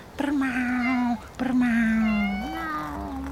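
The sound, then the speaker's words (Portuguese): A cat angrily lets out two long, drawn-out yowls, the first about a second long and the second stretching longer and rising in pitch near the end, with no talking. “Que desastrado, com o um pelo todo arrepiado, ela gritou: Tá ficando louco? Pra lá eu não vou não.”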